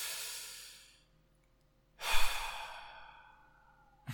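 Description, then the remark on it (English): A person imitates a dog's deep breaths through the night with two long, breathy sighs, each a soft airy exhale that fades out slowly, separated by a second of silence. “just deep breaths like that the whole night.”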